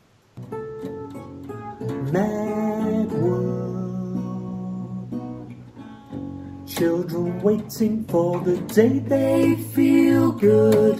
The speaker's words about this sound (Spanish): Entonces estamos esta canción que vamos a escuchar va con dos guitarras